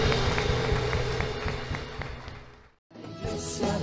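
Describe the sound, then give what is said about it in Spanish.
An audience claps in a steady rhythm in praise of the Lord during a church worship service, over loud worship music, the beats coming quickly and evenly before a brief dropout, after which the music resumes. “Si estás en la presencia, le aplaudes.”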